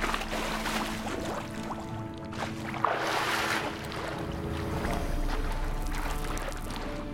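Steady sloshing, rushing water fills the scene, with soft splashes and a constant watery churn, as a video game character swims down through an underground river, moderately loud with no talking.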